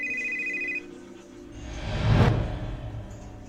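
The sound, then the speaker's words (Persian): A mobile phone's bright electronic ring tone sounds for a moment, then cuts off as a low, swelling whoosh rises and fades away; no one speaks. “یه دفعه موبایلم زنگ خورد”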